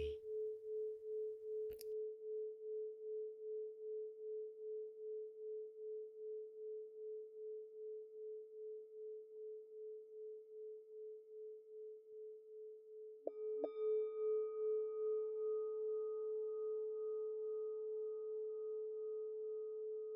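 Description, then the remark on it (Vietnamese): A meditation bell rings with a long, steady, gently wavering hum; partway through it is struck again, adding brighter overtones before the tone settles and sustains. No voices. “âm thanh của tiếng chuông tiếp tục massage thư giãn cho bắp chân và đùi”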